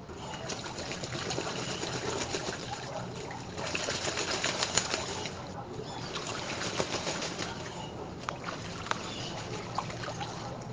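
Busy, continuous fluttering of bird wings, parakeets, hummingbirds and ducks flapping, with sharp flaps popping out of a dense rustling wash and a faint watery trickle beneath.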